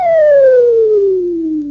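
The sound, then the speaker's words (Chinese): A single loud, sustained finger whistle, made with fingers put into the mouth, that glides steadily downward in pitch for nearly two seconds, clear and piercing, with no talking around it. “想到这里，秦梅娘手往嘴里边一插，一个口哨。”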